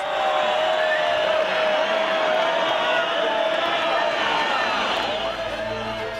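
A huge bullring crowd boos loudly and without pause, a dense, sustained roar of many voices that fills the whole stretch and eases only slightly near the end.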